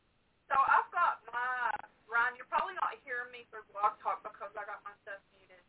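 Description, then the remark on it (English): A voice comes through a thin, band-limited call line, the speech doubling back on itself with an echoing delay, loud at first and trailing off into quieter fragments. “Yeah, I hear myself so got, echoing as hell.”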